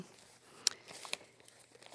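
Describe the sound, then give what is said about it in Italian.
Crisp paper rustling and crinkling, with a couple of sharp crackles as newspaper pages are handled and turned, continuing steadily for a moment with no voices. “Chiudo questa pagina, sempre che riesca a trovare tutta questa pagina sulle riforme e sulla giustizia.”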